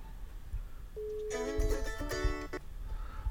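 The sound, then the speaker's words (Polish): A phone ringback tone while waiting for a call to a mobile phone to connect: a steady mid-pitched tone joined by a brighter, layered electronic chime for about a second, then it stops, leaving low rumbling background noise. “No i czekamy na połączenie, zobaczymy co z tego wyjdzie.”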